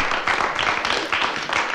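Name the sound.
audience applause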